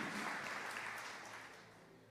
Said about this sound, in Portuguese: Aplauda, aplauda o nome do Senhor Jesus.